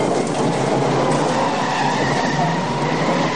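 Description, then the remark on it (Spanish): Car tyres skid in a sustained, loud screech with harsh rushing noise and a faint whining tone, holding steady for several seconds without any talking, as a car driven by a fleeing prisoner pulls out onto a main street. “El preso sale a la calle principal y derrapa.”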